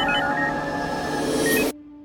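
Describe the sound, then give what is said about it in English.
Hospital emergency department equipment gives off steady electronic tones over a dense, busy hum, then the background cuts out abruptly, leaving a single sustained low tone ringing alone. “Beeping and clicks, glove hands and steel tools, bright lights and medical jargon.”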